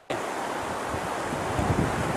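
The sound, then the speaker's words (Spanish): Rushing water of the Chiquito River on the border between Ecuador and Colombia, where migrants are crossing, flows in a steady, loud wash that starts abruptly and continues unbroken, with a faint low rumble beneath and no voices. “Decenas de migrantes atraviesan el río Chiquito en la frontera entre Ecuador y Colombia.”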